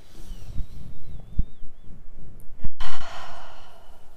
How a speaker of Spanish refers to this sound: Vamos a dar una respiración así como bien profunda